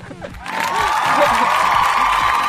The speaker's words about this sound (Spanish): ¿Y los aplausos? ¡Y mis aplausos!